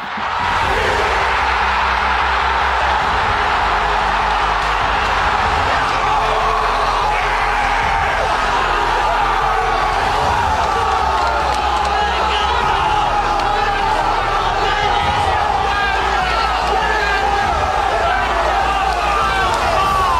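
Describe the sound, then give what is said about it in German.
A whole football team erupts in celebration, with many voices whooping, yelling and bellowing together in a loud, continuous roar, while a steady low thumping pulses underneath. “Kicker da die ganze Mannschaft jubeln.”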